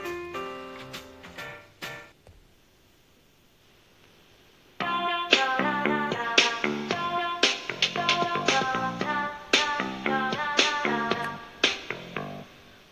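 A pop song cover opens with a few bright, plucky notes, falls nearly silent for a few seconds, then returns loud and full with punchy, rhythmic chords and sharp accents.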